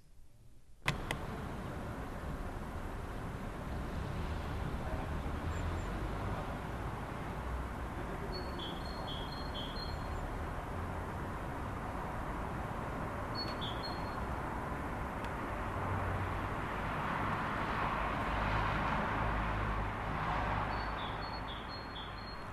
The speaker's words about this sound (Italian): Resti da sola a casa e spesso ti affacci alla finestra, registri il suono degli uccelli, delle voci e poche macchine lontane. Non avevi mai sentito Milano così silenziosa.